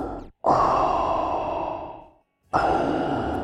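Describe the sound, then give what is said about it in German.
Heavy, loud mechanical respirator breathing, a recreation of the Darth Vader sound from Star Wars: one long hissing drawn breath, a brief pause, then the next breath begins. No one speaks. “Wir haben bereits das Lichtschwert nachgebaut und jetzt den typischen Darth Vader-Sound.”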